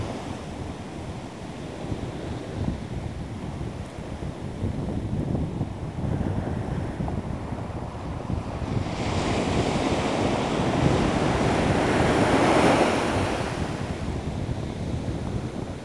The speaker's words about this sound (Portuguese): Vamos respirar e sentir como as ondas do mar Sentir a inspiração e a expiração.